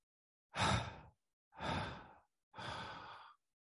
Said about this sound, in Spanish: Inhalamos profundamente y exhalamos tres veces por la boca.